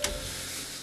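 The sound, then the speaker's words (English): A quiet clock ticking, heard alone for under a second over a faint steady hiss, with no voices. “I'm going to turn that clock off.”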